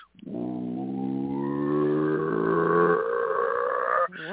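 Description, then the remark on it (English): A voice imitates a deep, rumbling roar like a motor ramping up, one sustained growl of about four seconds that starts low and swells upward in pitch, loud, with no other talk. “and while we were while we were standing there quiet, um, watching this cop give a ticket, all of a sudden this sound comes from all around us and it started really low and it almost sounded like a motor ramping up.”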